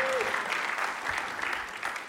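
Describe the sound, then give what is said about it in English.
A church audience applauds steadily to welcome visitors, a dense wash of many hands clapping at moderate loudness, sustained throughout with slight swells and no voices standing out. “So why don't you just clap and uh, be glad that they're here, all right?”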